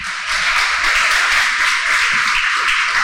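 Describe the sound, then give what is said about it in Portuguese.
A crowd breaks into steady applause after a brief pause, many hands clapping together in a dense, continuous wash that stays loud and even for a few seconds, with no voices over it; applause for a sister at an Umbanda religious gathering. “Gostaria de uma salva de palmas para nossa irmã.”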